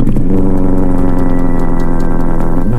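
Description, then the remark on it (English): A loud, rumbling engine of a modified vehicle with a noisy muffler idles and revs, its deep, throaty exhaust note steady and throbbing for a few seconds with no one speaking. “Barrie police have renewed the effort to crack down on modified vehicles and the noise that comes with them.”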